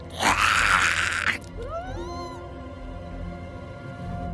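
A creature lets out a loud, harsh, raspy shriek lasting about a second, followed by a thinner rising wail that trails off, then a low steady hum remains.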